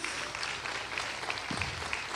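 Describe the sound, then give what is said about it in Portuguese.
An audience applauds the Lord for a testimony, a steady wash of many hands clapping at even loudness with no one speaking over it. “Eu falei com ele, pode aplaudir o Senhor, isso é um testemunho”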